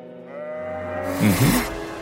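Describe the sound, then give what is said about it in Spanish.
A single sheep lets out a long, wavering bleat, fairly loud, rising to a quavering, breathy finish with no other sounds around it. “La famosísima oveja Dolly.”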